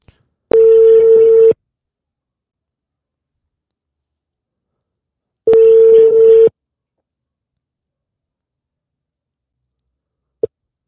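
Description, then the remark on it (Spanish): An outgoing phone call ringing: two steady ringback tones about a second long each, spaced several seconds apart with silence between, ending in a brief click as the line picks up. “Ahorita le voy a echar una, una llamadita porque neta es de estas personas que yo admiro mucho y nos viene a contar algo bien interesante.”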